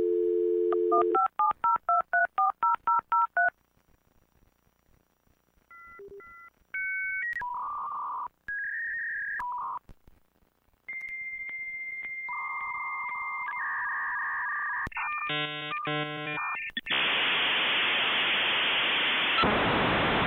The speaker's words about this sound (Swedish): Men den är hemsk. Jag fattar inte vem kom på att det ska låta sådär. Eller var det bara att det lät så? Det lät väl så. Du ringde ju upp internet.